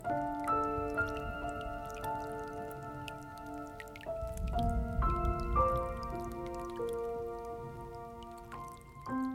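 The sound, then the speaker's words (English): Steady dripping of rain, soft scattered taps repeating monotonously beneath sustained, slowly shifting musical tones and a low rumbling wash. No voices are heard. “recent years, living as I do in a big city remote from my old home, I invariably feel homesick listening to the harsh, monotonous drip, drip, drip of the rain.”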